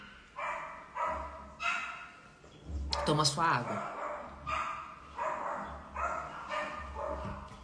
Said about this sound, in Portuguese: Os cachorrinhos estão animados